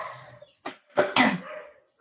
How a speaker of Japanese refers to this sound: あのちょっとバックで後ろが あの犬が鳴ってるんですけど、泣いてるんですけど、気にしないでください。